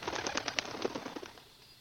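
A flurry of forest birds' wings flapping in rapid, uneven bursts, fairly loud at first, then thinning out and fading over about a second and a half, with no voices present.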